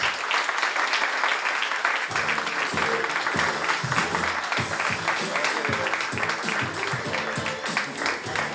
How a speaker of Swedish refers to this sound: Exakt. Stor applåd